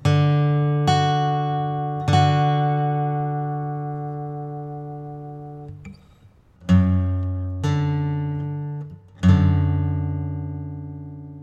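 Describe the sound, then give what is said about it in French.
An acoustic guitar strums a D chord with an F-sharp in the bass, about six clear strums that ring and slowly fade, with a short pause midway; no talking. “L'occasion rêvée de resortir la guitare acoustique pour aborder quelques détails du jeu”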